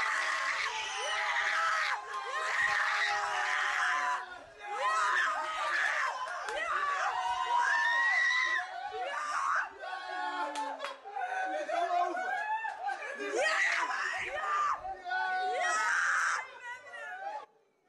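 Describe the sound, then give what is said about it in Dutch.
High-pitched, ecstatic screaming of joy at a Netherlands penalty goal by Koopmeiners bursts out in loud, sustained shrieks, with several voices yelling and cheering together for about eighteen seconds, broken by brief gasps and laughter. “Ik wist niet dat ik zo hard kon gillen.”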